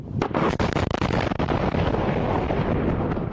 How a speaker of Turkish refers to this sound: F-16 mühimmatlarının bulunduğu cephanelik canlı yayında infilak etti. Patlamanın şok dalgası canlı yayındaki muhabir ve kameramanı savurdu. Üsse yakın evlerin camları parçalandı.